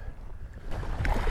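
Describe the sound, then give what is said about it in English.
Gusty wind rumbles and thumps against the microphone outdoors, a continuous low, buffeting roar that swells louder in the second half, with no voices present. “It's uh, quite windy and um, I'm trying to avoid getting too much wind in the microphone, so hope this works.”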